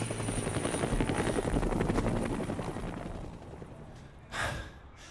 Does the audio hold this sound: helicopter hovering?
yes